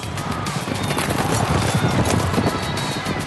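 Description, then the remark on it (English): A pack of racehorses thunders off at a gallop at the start of a race, hooves drumming in a dense, rapid, continuous pounding that stays loud throughout, with no voices. “And they're off.”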